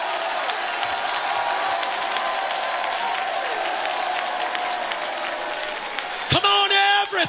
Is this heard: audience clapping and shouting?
yes